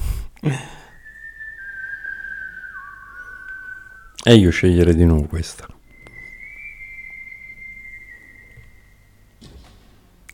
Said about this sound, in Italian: forse dovremmo fare una serie per Forte Festival, per Senti Questa, canzoni col fischietto